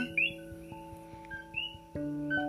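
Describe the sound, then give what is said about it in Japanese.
Coqui frogs calling at night on Hawaii Island: sharp, rising two-note chirps repeat from several callers, overlapping above a steady low humming drone. No one speaks. “皆さん何の音だと思いますかこれね実はカエルなんですよコーキーフログと呼ばれるカエルなんですけれどもこうやって夜になるとコキコキって”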